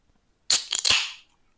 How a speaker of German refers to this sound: Du hast Nüsse geknackt mit deiner Arschbacke.